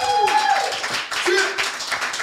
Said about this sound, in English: Oh, I think I have an applause button too. Oh, wait a minute. It's horn. there we go. I was a late on that.